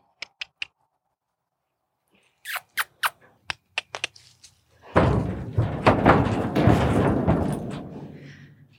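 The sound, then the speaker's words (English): Sharp metallic clanks and knocks rattle, followed by a loud, sustained clattering slam as the heavy door of a horse trailer swings shut after a horse is loaded, with creaks and rattling trailing off. “So in this case, I'm going to demonstrate how Sydney and I usually travel alone, which means that I send her onto the trailer and then turn her around and shut the door.”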